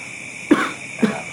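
Two short, close coughs about half a second apart, each a sharp throaty burst, over a steady faint background hum with no speech.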